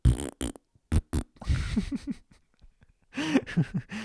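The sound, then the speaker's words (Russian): A voice imitates farting with a series of short, buzzy mouth blasts, a few quick pops followed by longer sputtering bursts, fairly loud with brief pauses between them. “Просто обычно вот так делают, пукают вот с таким жестом, типа вниз.”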